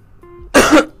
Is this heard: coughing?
yes